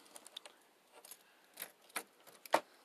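A bunch of keys jangles in short, irregular bursts of bright metallic jingling as a gate is locked, ending with one louder clink. No one speaks.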